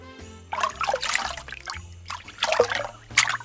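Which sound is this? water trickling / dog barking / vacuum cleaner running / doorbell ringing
water trickling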